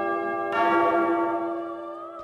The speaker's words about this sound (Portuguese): Toca o sino, sacristão.